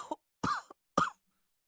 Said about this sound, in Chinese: 蒋亮剧烈的咳嗽起来，我赶紧拍着他的后背，眼泪一劲的流了下来。